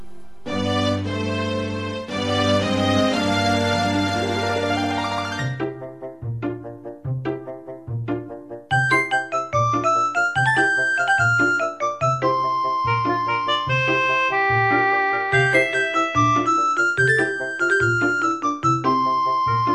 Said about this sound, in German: Um das mal ein bisschen zu verdeutlichen, werde ich jetzt einfach mal hier einen Zelda-Soundtrack anlaufen lassen. Äh, zuerst das Original und dann lasse ich das mal so übergehen, äh, wenn es geht, irgendwie stufenlos in den Orchester-Soundtrack.